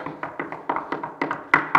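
A rapid series of about ten sharp knocks on a door, evenly spaced, ending with a couple of slightly louder raps.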